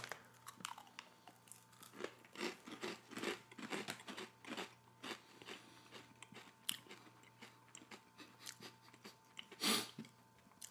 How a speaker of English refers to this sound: If you've ever made cheese crisps or bought cheese crisps, um, cheese crisps, they've got a very familiar crunch.